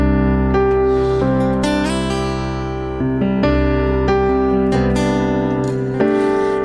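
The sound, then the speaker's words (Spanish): A live band plays a loud, full instrumental intro of its first hit song: sustained chords shift every second or so, with occasional cymbal-like crashes punctuating the steady music. No voices are heard. “el primer éxito, el primer éxito precisamente fue, suena más o menos así. A ver, un tonito.”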